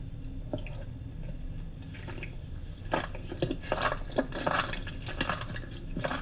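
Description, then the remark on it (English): Wet, sticky slurping and chewing as a woman eats octopus dipped in soy sauce, with irregular squelches and small clicks that grow busier and louder toward the end. No one speaks. “She's got half an octopus hanging out of her mouth.”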